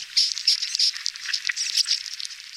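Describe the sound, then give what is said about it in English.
Bark beetles inside a pinyon tree in drought-stricken northern New Mexico make dense, irregular clicking and crackling, a steady busy texture of tiny dry ticks and scrapes with no talking. “We could go out, insert a probe, listen for the presence of the beetle, and tell the property owner that this tree is or this tree is not infected.”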